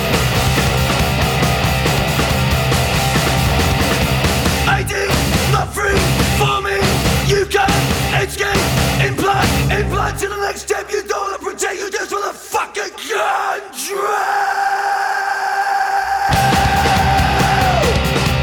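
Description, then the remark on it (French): Harsh screamed vocals hurling insanities erupt in a vocal break of a loud, distorted industrial metal song, with dense, tight guitar and pounding drums; the mix thins briefly before a sustained droning tone returns near the end. “et qui va nous hurler des insanités euh, au visage euh, lors d'un break vocal.”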